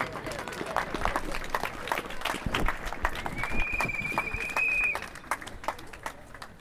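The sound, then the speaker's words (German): A crowd in Kassel, Germany, applauds the city councillors steadily, with dense overlapping claps throughout and a brief high whistle-like tone rising above the clapping partway through. “Okay, herzlichen Applaus für die Stadtverordneten der Stadt Kassel, die draußen sind.”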